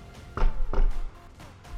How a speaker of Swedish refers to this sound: Du hör hur det knackar på dörren.